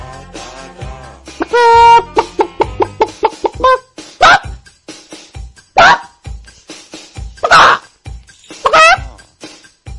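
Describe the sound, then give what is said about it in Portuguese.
A person vocally imitates a chicken that has seen something unusual while walking in the yard, starting with rapid repeated clucks that build into several loud, sharp squawks, like a startled hen. Clear, with no other sounds. “Agora a, a, a imitação de uma galinha que, que viu algo diferente enquanto andava no quintal?”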